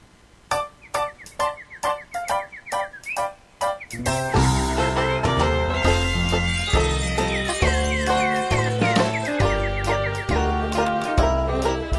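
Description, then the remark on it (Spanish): A short instrumental musical interlude opens with a run of punchy, evenly spaced stabs, then swells into a full, loud arrangement with steady bass and bright melodic lines, with no voices. “Vamos a ir, María Claudia, a un pequeño tema musical porque nos están llegando preguntas de todas partes.”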